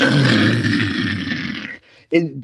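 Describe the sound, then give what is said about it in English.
A voice imitates the cracking of iceberg ice: a loud, rumbling roar like thunder lasting nearly two seconds, then a brief gap and one short, sharp vocal burst like a small bomb going off. “it, it sounded like loud thunder and like little mini bombs going off at time.”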